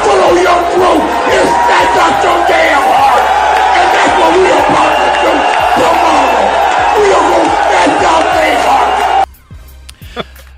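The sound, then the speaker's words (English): A packed crowd at a Miami pep rally, before number eight Florida plays Miami in Orlando, roars, cheering and yelling loudly and continuously for about nine seconds as Hurricane great Michael Irvin pumps up the fans, with shouting voices mixed in, before the noise cuts off abruptly. “Now, last night, Hurricane great Michael Irvin made an appearance at a Miami pep rally and pumped up the fans in his usual understated way.”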